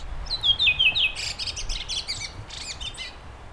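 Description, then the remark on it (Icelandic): Songbirds chirping in quick, bright bursts, with sweeping high-pitched whistles giving way to rapid clusters of sharp tweets, fairly loud over a low background rumble, with no voices. “Oft greinum við óþægileg öskur frá fuglunum þegar þeir berjast um í klóm hverfiskattana en svo er það blístrararnir sem veki okkur á mornana.”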